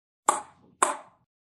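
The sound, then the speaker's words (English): Two sharp, hollow clicks of a ping pong ball being hit, about half a second apart, each with a brief ringing decay, clear with no talking. “This is the sound of ping pong.”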